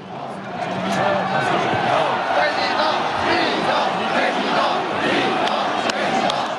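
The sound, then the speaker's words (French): A large crowd at a political rally in France roars and chants in unison, voices blending into a loud, sustained wall of cheering and shouting that fills the whole stretch, with occasional sharper yells and thumps. “C'était une foule qui se victimisait comme lui se victimisait.”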